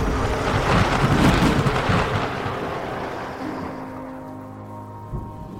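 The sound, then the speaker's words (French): A loud roll of thunder swells and rumbles over steady rain, then slowly fades away, leaving a quieter, lingering hiss of rainfall. No voices are heard. “chargées de toute leur rancœur et de leur solitude, elles devinrent le tonnerre.”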